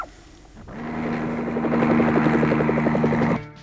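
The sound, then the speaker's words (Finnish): A helicopter's steady engine drone with a rapid, rhythmic rotor chop, rising quickly and holding loud and constant for a few seconds before cutting off sharply. “Lapset voivat kai tulla mukaan kopteriin.”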